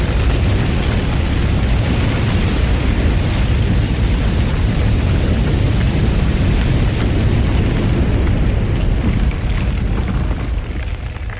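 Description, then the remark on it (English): Crumbling rock and falling gravel after a tunnel collapse, with timber splintering and rock sealing the tunnel, make a dense, steady roar of deep rumbling and gritty crackle. It stays loud throughout and eases slightly at the very end, with no voices. “Echoes of crumbling rock and falling gravel continued afterwards.”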